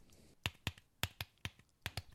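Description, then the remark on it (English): Soft, muted keystrokes on a fabric-covered tablet smart keyboard, about eight quick taps in an uneven typing rhythm, fairly quiet, with no voices. “Okay, so this is the sound that the smart keyboard makes when you're typing on it.”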